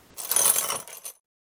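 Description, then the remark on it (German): A chain clinks softly outside in a brief metallic rattle lasting about a second, bright jingling links shaken, ending with a small final clink before silence. “Draußen hörte man schon schwere Schritte kommen und eine Kette leise klirren.”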